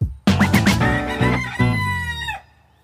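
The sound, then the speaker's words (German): A rooster on a small home farm crows once, loud, a drawn-out cock-a-doodle-doo lasting about two seconds before cutting off into silence, with no voices around it. “Wie kam es denn jetzt genau, dass wieder Hühner auf meine kleine Farm gezogen sind?”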